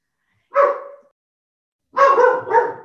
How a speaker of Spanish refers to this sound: Perdón, mi perro